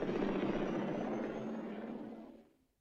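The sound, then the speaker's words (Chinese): A steady, loud roar of an aircraft engine with a whirring, helicopter-like texture holds for about two seconds, then quickly dies away to silence; a wobbling aircraft in a Rambo film scene, from which a man falls after shooting at Rambo. “阿尔特对着兰博又开了两枪，可惜非但没有击中兰博，他自己却从摇摇晃晃的飞机中摔了出来，一命归天。”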